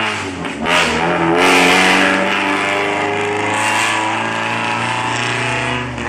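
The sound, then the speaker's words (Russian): Itasha decorated cars in Chiba Prefecture drive past on their way to a gathering, engines revving loudly, a steady low-pitched roar with rising and falling tones throughout, no voices heard. “это, это Итася в префектуре Тиба едут на свой слет, который прошел тоже в конце сентября.”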